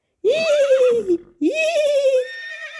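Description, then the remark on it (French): A big black horse neighs loudly, two long whinnies in a row, each sliding downward in pitch, with a short gap between them and no other sounds around. “À la fin de la journée, même le grand cheval noir s'est présenté.”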